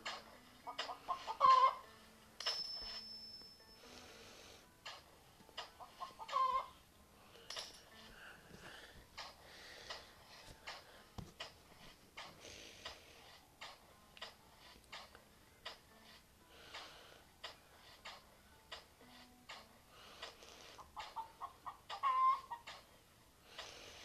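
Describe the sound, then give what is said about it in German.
A chicken clucking sound comes from the speaker's cap, in quick, repeated bursts, with a few louder squawking calls standing out now and then over a steady stream of short, choppy clucks. “Als ihr das Bock, Bock, Bock hört, das jetzt, Das ist meine Kappe.”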